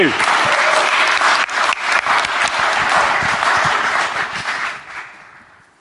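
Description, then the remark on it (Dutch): A crowd applauds loudly and steadily, dense clapping from many hands before tapering off near the end. “Dus, hey, we applaud”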